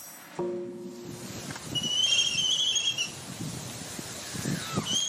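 Albatross calls, a mix of nasal honks and thin high whistles repeating over about five seconds, set against a steady wash of rushing background noise like wind or surf.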